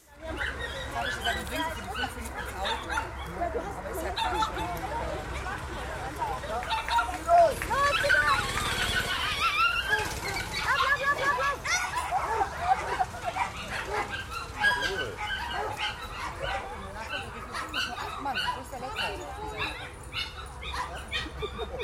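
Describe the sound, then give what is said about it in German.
Many dogs bark and yelp excitedly at an outdoor dog race on a greyhound track, run in heats by size so any dog can compete, their overlapping barks continuous amid a noisy crowd with people talking and children's voices in the background. “Und äh, dieses Hundrennen ist dann so äh, gestaffelt, dass jeder Hund dort antreten kann, eben nach gestaffelt nach Größen.”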